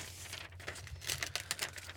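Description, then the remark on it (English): Paper crinkles and rustles, a run of short crackling bursts that grows busier in the second half, with a low steady hum underneath and no talking. “Honestly, this piece of paper probably should just. Like, this is gonna be my Bible from.”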